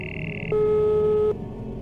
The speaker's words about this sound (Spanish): Estaba tan hecho un desastre que antes de darme cuenta tenía mi teléfono pegado a mi oído. Sonando.